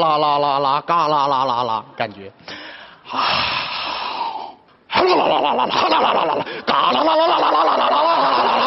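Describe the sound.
A man vocally imitates the engine of an old, ninth-hand Harley motorcycle that can only go about twenty miles per hour, with several loud, rattling rolled bursts of rapid syllables, broken by short pauses and a brief spoken word.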